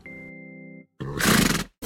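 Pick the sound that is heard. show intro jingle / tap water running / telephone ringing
show intro jingle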